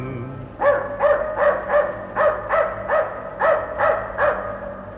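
A dog barks about ten times in a quick, steady rhythm, each bark sharp and fairly loud, with no voices and only a faint background hum.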